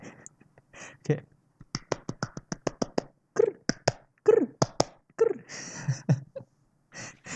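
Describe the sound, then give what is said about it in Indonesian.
Hands clap as a greeting, in the way it is done in Zimbabwe, in quick, uneven bursts, a rapid run of sharp claps followed by more scattered ones, fairly loud, with voices and laughter mixed in between. “nah kalau di Zimbabwe nih mereka tepuk tangan kayak manggil burung ya”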